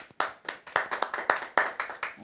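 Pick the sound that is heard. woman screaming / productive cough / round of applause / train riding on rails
round of applause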